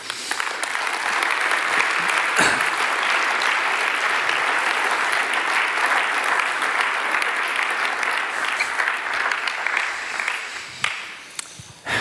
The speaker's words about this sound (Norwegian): og dere må ønske ham velkommen med en applaus.